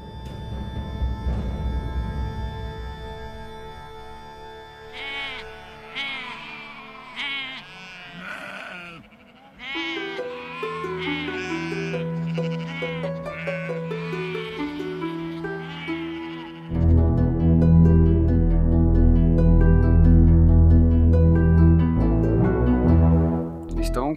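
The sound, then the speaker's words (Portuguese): Several sheep bleat over and over as the flock is gathered together, their wavering cries overlapping, while a heavier, louder low rumble fills the background toward the end. “conseguindo juntar todas as ovelhas sem problema nenhum.”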